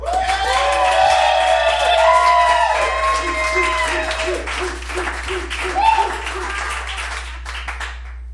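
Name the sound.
audience applause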